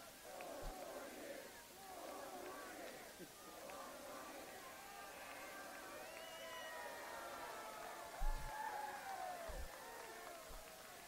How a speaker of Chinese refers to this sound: 那民众现在在欢呼。民众又在大喊：“再做四年。”